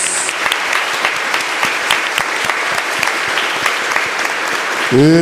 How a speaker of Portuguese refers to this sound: Vamos aplaudir bem forte a palavra de Deus, filhos amados.